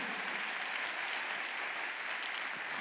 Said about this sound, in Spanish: Y si le vas a dar un aplauso, dale un fuerte aplauso al Señor por eso